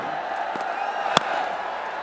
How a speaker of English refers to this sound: The crowd goes very quiet, but then suddenly they're cheering again because Abdur Razzak traps Munir Dar LBW.